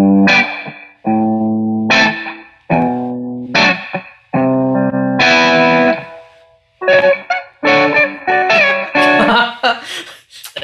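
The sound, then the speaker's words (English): An electric guitar plays strummed chords and quick note runs through an amp with its spring reverb turned all the way up, each burst ringing out into a short, splashy tail. No one speaks. “So it's not too long of a spring reverb.”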